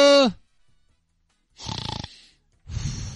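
A brief voiced sound at the start, then two raspy, rattling snores, each about half a second long with a fluttering texture, separated by a short pause.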